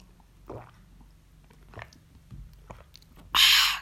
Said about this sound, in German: Meine Freunde, sorry, ich muss jetzt erstmal kurz Wasser trinken, das meine Oma gerade reingeholt hat.